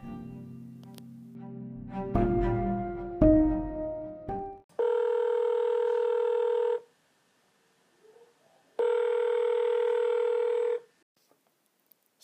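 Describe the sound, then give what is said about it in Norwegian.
A telephone call being placed to the church warden: a quick jumble of dialing tones, then two long, steady ringing tones separated by a short silence. Fairly loud, with no voices. “kirkevergen blir oppringt og situasjonen forklart.”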